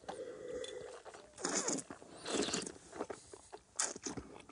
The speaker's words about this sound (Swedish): Om vi smakar då? Mm. Nu sörplar vi lite där också för det är en del av det hela.